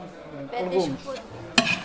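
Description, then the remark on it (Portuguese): Metal pots scrape and shift among the burners of a kitchen stove, with a ringing scrape midway and one sharp clank of pan against metal near the end. “Na cozinha, são as panelas que devem encontrar o seu lugar entre os bicos do fogão.”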